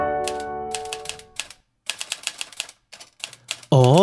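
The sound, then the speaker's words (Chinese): Sharp typewriter keystrokes clatter in quick, uneven bursts over a fading tone, then a loud sliding, whirring sound bursts in at the end, like the carriage being pushed back. “哦，这是打字机的声音。”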